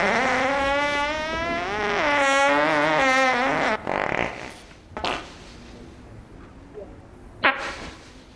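A long, drawn-out fart buzzes for several seconds, its pitch wobbling up and down, followed by a few short, noisy bursts and quiet gaps.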